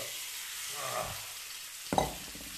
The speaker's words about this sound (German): So, und jetzt in die heiße Pfanne würde ich sagen, kommt unser Hähnchen.